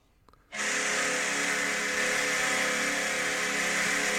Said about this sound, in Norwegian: Han har passe nok valgt å innlede med Buffalo Savers sitt målhorn, så vi hører det ja. i starten her, og så kommer låta da straks.